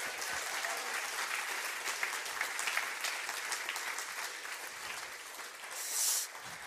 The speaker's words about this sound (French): Alors si tu le crois, tu peux applaudir le plus fort que tu peux et dire merci à notre Dieu.